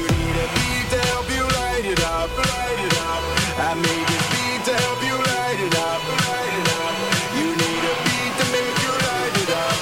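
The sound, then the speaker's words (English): A loud, steady stretch of produced pop-rap music plays throughout, with punchy regular drum hits, bright synth and vocal lines layered over a dense, thumping beat. “Because who other than a parent who doesn't understand would do a song that sounds like this?”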